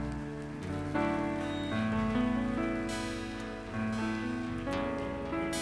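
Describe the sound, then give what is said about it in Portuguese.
A crowd claps steadily in a dense, continuous patter, layered over sustained keyboard-like music chords that shift every second or so; no one speaks. The audience at a church service is applauding the Lord. “Se você viu alguém fazer essa oração, igreja, dá um abraço nessa pessoa e quando a gente aplaude o Senhor mais uma vez, por esse que é o melhor momento desse culto.”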